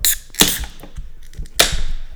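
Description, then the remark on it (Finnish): A drink can cracks open with a sharp pop and a bright fizzing hiss, then a second crisp snap releases another burst of hissing carbonation that trails off slowly. “Sihautetaan.”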